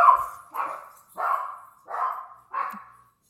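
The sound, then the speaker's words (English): Dogs bark five times in a steady, evenly spaced series, each bark clear, with no voices alongside. “My dogs have just made their appearance.”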